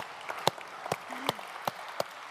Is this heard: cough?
no